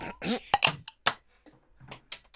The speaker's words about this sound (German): Oh, wunderschön. Merzig klack als gewöhnlich. Alter, der Kronkorken ist gerade von der Flasche an die Dachschräge auf meine Schulter in den Schoß auf den Boden.